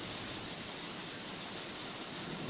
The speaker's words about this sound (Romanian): Vedeți că plouă acum, da?